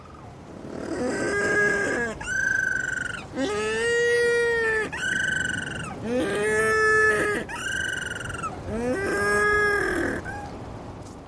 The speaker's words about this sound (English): On land at night, little penguins can be really noisy, particularly before and during breeding season.